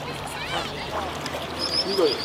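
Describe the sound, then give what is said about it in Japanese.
Cormorant fishing on the Fuefuki River at Isawa, Yamanashi Prefecture, Japan: steady water flow and gentle lapping around a boat, with faint voices in the background and brief high chirping calls near the end. “今朝は山梨県笛吹川伊沢鵜飼のいい音”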